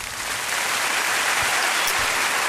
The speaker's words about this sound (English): It was a live performance. You can hear by the clapping.